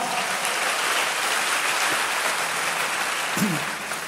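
Steady, dense applause from a sizable crowd fills the whole stretch, a broad even clatter of many hands clapping, with a brief voice rising faintly near the end.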